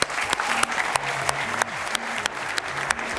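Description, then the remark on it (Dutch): A live audience in a football canteen in Bonheiden, Flanders, applauds steadily at the start of the show Extra Time, a dense wash of many hands clapping with a few sharper, louder claps popping out, lasting several seconds with no talking. “Vanaf nu gaan wij live met een live publiek vanuit eender welke voetbalkantine in Vlaanderen.”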